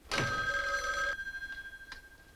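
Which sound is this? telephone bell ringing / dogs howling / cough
telephone bell ringing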